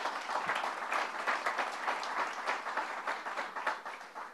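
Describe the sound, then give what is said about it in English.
A crowd applauds steadily for Senator Ruth Hassell Thompson, many hands clapping in a dense, sustained patter that stays fairly even before easing slightly toward the end. “Let's give Ruth a round of applause.”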